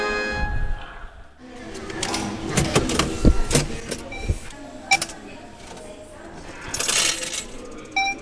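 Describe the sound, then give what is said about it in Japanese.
A betting ticket machine at a horse racing track pays out winnings in coins, with a run of clinking metallic drops and rattles tumbling into a tray, plus a short electronic chime and mechanical whirring. “もう一度聞いてみましょうかちょっとねいいこれね ちょっとてってれれってってってって万栄競馬払い戻しの音”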